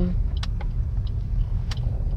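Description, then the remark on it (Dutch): A few sharp, irregular ticks sound inside a car, with two louder clicks standing out over the steady low rumble of the cabin and engine. No one speaks. “dus mocht je wat getikker horen, dan weet je dat het komt omdat ik dus in de auto zit.”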